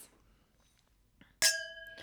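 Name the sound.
wine glasses clinking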